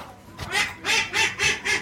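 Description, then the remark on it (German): Ducks that are being fed at a small beach quack and chatter in a quick run of four or five loud, nasal calls, repeating in a steady rhythm. “Hier wurden gerade die Enten gefüttert hinter uns. Das hörst du auch im Geschnatter mal wieder.”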